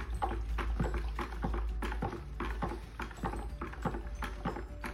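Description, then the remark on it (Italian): A stick churns thick liquid paint, diluted with some water, in a metal can, mixing it with steady rhythmic sloshing and scraping strokes, with no one talking. “andiamo a diluirla con un po' di acqua come indicato dietro la lata ci sono le percentuali che indicano quanta percentuale di acqua va in base ai litri che avete nella latta La mischiamo”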